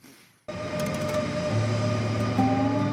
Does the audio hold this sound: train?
yes